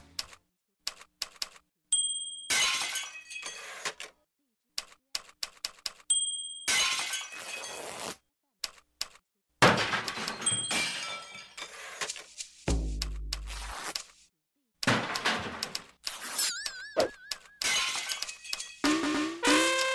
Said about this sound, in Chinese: 还记得小猴子们在营地当中发现了打字机的那个片段吗？他们竟然用场景当中各种生活用品演奏了一曲。打字机的啪嗒声、碟子摔坏的砰砰声，还有敲击木桶发出的通通声等等，组成了一首趣味横生的小片段。